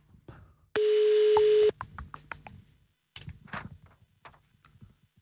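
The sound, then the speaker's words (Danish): A phone line rings out once as an outgoing call connects, a loud steady beep lasting about a second, followed by soft clicks, rustling and handling noises. “Ej, jeg tror, jeg ringer skulle lige en gang.”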